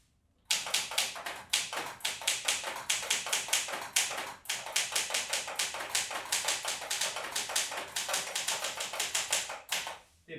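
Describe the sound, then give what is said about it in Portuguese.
Rapid, steady clatter of mechanical typewriter keys as a short sentence is typed, a dense run of sharp clicks with a couple of brief pauses and a heavier thunk near the end, with no talking. “Um, é, todo, é toda uma experiência escrever numa máquina de escrever.”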